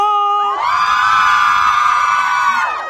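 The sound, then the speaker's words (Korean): A crowd of fans shrieks and cheers at an open-studio broadcast of the radio show Kiss the Radio with special DJ Seo Eun-kwang, one sustained, high-pitched roar that swells quickly, holds loud and steady for about two seconds, then fades away. “자, 다시 한번 소리 질러!”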